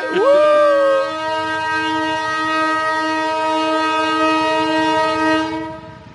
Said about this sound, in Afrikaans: O, hier kom 'n trein. Dit is nou Dan nou moet jy weet, dit is die geluid wat ek teen moet speel op die verhoog, né?